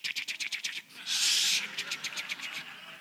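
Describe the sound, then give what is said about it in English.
A voice imitates dialing an old wall-mounted rotary phone: a quick run of clicking ticks, a brief breathy whirr, then another rapid series of clicks, fairly loud with no other talking. “I'd say the phone used to be attached to the wall. We used to, have, used to have to dial it like this.”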